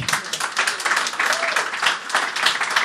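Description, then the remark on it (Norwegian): A crowd applauds steadily, many hands clapping in a dense, continuous patter that stays fairly loud throughout with small swells, and no clear voices over it. “Ja, så er det to Sarpsborg-fans baki her som ikke klapper, ser jeg.”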